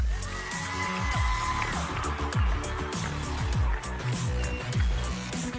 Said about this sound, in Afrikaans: Hulle is almal hier vandag. Kom ons gee vir hulle 'n groot applous.